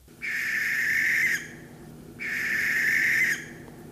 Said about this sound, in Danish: Øh, jeg tænk, kommer jo til at tænke på en gris. Altså, den skrigende gris. Det er jo et kælenavn for, hvad hedder den, øh, rørvagten. Ah, jeg tror, du tænker på vandriksen.